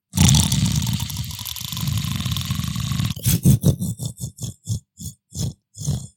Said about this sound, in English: He sees the guy snoring.